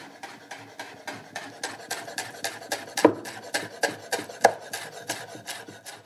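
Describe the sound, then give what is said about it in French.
A knife finely minces washed basil leaves, stacked and rolled up, on a cutting board, making a steady run of crisp, quick taps, roughly two or three per second, with a couple of sharper knocks and no talking. “Je les enroule pour me permettre d'émincer très finement.”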